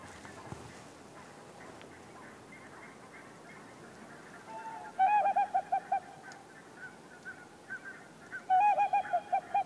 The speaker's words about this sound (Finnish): kaukaa tuo lehtopöllö sitten oikeastaan kuuluu?